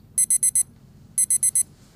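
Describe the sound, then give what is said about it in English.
An alarm clock beeps in two bursts of four rapid, high-pitched electronic tones, loud, with a low background hum between them and no talking. “Turn off the alarm.”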